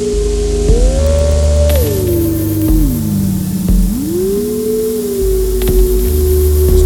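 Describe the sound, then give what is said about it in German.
Steady electronic white noise hisses loudly throughout, joined by a smooth synthesized tone that glides up and down in pitch, with low rumbling layers and no voices. “Ich brauche mal das Rauschen ein bisschen zurück.”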